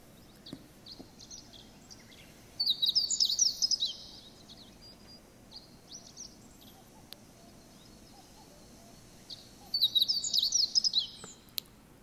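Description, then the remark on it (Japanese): A meadow bunting sings two short, rapid, high-pitched phrases of chirping notes, each about a second long and separated by several seconds of quiet, over a low outdoor background hum. “で、この法事ですけども、今聞いていただきましたけど、これを聞きなし、人の言葉に置き換えたものを言うとですね、法事の聞きなしは、えー、一筆形状つかまつり候、または札幌ラーメン、味噌ラーメンって言ってるように聞こえると。”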